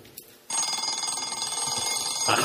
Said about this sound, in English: a, a sound that is desperately, desperately familiar to most of us, and of course, it's the sound of the alarm clock. And what that truly ghastly, awful sound does is stop the single most important behavioral experience